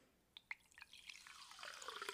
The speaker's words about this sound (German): Oh, schön, Wasser sprudelt auch.